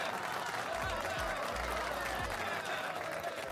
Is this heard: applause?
yes